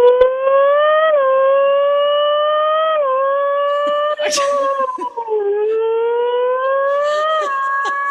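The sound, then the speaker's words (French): A voice mimics a Formula 1 car by vibrating the lip against a tooth, a loud, sustained nasal whine that climbs in pitch and then drops several times, like gear changes, held continuously for about eight seconds. “comment t'as réussi à trouver que tu imitais une Formule ben, euh, écoute, euh, je, fais plein de sons, je fais plein de bruit avec ma bouche, mais euh, entre autres, c'est juste parce que je fais comme vibrer ma lèvre avec ma, ma dent”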